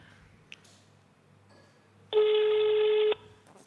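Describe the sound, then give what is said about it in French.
A single steady telephone ring tone, heard over a speakerphone, sounds for about a second over a faint background hum, then cuts off, like a call ringing through on the line with no one answering. “Il répond pas.”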